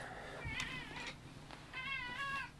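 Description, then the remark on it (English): A cat named Cleo meows twice, fairly loud: a short wavering cry, a pause, then a longer drawn-out meow, over faint background hum. “Kitty, I'm gonna have Cleo in the background on this.”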